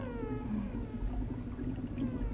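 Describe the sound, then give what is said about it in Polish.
A cat lets out a single drawn-out meow that slides downward in pitch, over a steady low background rumble, with no other voices. “Może w tego kotka.”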